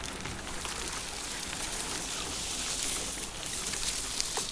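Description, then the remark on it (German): A small boat is maneuvered forward through a dense thicket of reeds, rushes, grasses and a carpet of white water lilies, making a steady rustling and crackling with soft watery swishes that continue without pause. No one speaks. “Ich erkämpfe mir jeden Meter, drücke mich vorwärts, manövriere mein Boot durch einen Dschungeldickicht aus Schilf, Rohren, Gräsern und einem Teppich aus weißen Seerosenblüten.”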